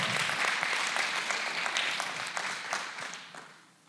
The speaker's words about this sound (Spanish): pero quiero reconocer al, al Ministerio de Anfitriones y agradecerles. ¿Por qué? Porque un aplauso, un aplauso para ellos.